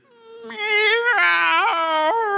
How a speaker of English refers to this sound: But the thing about it is, is that as I really started trying to feel some empathy for my cat, every time that this cat is ready to throw up, you hear this.